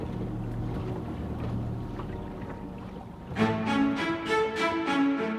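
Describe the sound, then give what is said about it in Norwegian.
A river boat glides away across water with a low, steady rumble and lapping, then a busier stretch of crowd noise and splashing rises in the last couple of seconds as a mob shouts after it, moderately loud. “Rett før mobben får tak i henne, glir båten bort.”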